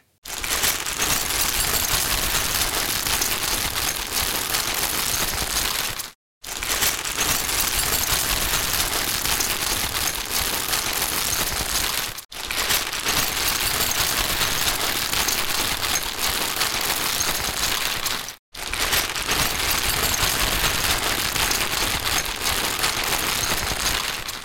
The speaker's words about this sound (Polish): I jeszcze mały test polegający na miętoszeniu foliowego woreczka z narzędziami, bardzo dużo mówiący na temat reprodukcji dźwięków transientowych, szumowych i najwyższych częstotliwości.